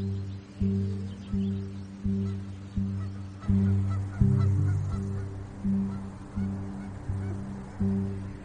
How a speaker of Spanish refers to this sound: Ah, ¿los ves? Allí, volando. ¿Son pájaros? No, no creo. Parece que son gansos.